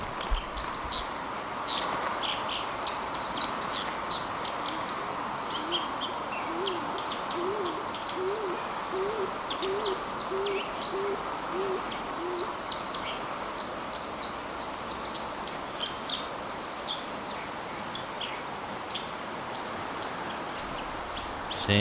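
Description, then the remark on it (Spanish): A steady, continuous murmur of flowing water fills the scene while a dove in a tree coos softly in a repeated series partway through, with small birds chirping lightly high above. “Oímos muy bajito el sonido allí de fondo, oímos un murmullo de agua continuo ¿eh? y una paloma cantando también por ahí en algún árbol y nos da bueno pues la sensación de un bosque de ribera, de una mm.”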